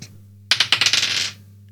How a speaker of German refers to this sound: Jetzt, jetzt würfeln wir weiter. Und ja, Verlierer, Verlierer fängt, an. an.